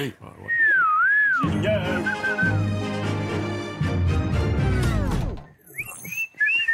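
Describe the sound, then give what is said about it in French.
A person whistles a short, wavering tune, then loud music swells in and fades out, followed by a few more whistled notes near the end. “Je siffle très, très mal.”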